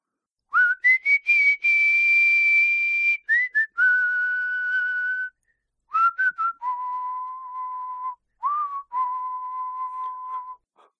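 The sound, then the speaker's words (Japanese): A person whistles an imitation of the background music played in the cool scenes of a hospital drama: a short melody with quick rising grace notes leading into long sustained tones that step down in pitch across several phrases, clear with no talking. “口笛吹くんですかそれ。”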